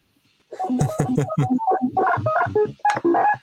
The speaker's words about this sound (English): Just fiddling with um, like pinging the filter through the arpeggiator. Ah, wow, that's funny.